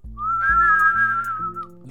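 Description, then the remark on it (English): A strange, eerie whistle holds one high, slightly wavering tone for more than a second, fading out at the end, over a low droning pulse that repeats steadily underneath. “You hear this like strange whistling sound”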